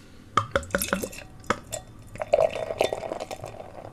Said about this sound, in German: Und ja, ich mache es mal auf. So, und jetzt kommt es mal ins Glas.